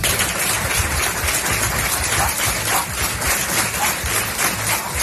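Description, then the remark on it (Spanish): Residents of a village in Cantabria, Spain, applaud to end a minute's silence held in the morning in tribute to a murdered 48-year-old local woman, many hands clapping together in a dense, continuous patter that holds an even loudness throughout, with no voices standing out. “Con este aplauso han roto los vecinos de este pueblo cántabro el minuto de silencio que se ha guardado esta mañana en homenaje a Silvia.”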